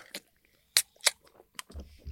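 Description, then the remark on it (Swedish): Taking the first sips of a pear-flavoured Nocco energy drink: four or five short, wet slurping and swallowing bursts at uneven intervals, fairly quiet, with no talking. “Första ah. klunken. Jag sitter här med en päron.”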